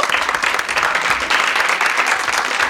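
An audience applauds steadily, a dense wash of many hands clapping at an even, fairly loud level throughout, with no voices standing out.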